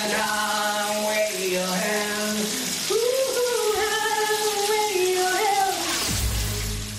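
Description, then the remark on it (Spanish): A Rock FM radio voice sings a wavering, drawn-out melody in the shower over the constant hiss of running shower water, the notes sliding and held before the singing breaks off near the end, leaving the water rushing. “Me imagino que tienes en tu mente el nombre de quien canta bajo la ducha de Rock FM.”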